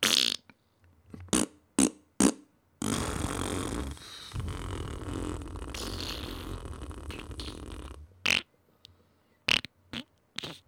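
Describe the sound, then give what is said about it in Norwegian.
A string of farts: a few short, sharp blasts, then one long, loud, rumbling fart lasting several seconds, followed by more quick bursts. No one speaks. “Så prompehumor”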